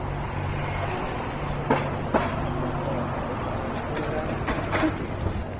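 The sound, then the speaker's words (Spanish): A large Transmilenio rapid-transit bus rumbles along the street with a steady, loud low drone, a few sharp metallic clanks punctuating the passing roar amid busy outdoor traffic noise. “voy escuchando el, de cuando pase Transmilenio. Allá viene Transmilenio allá.”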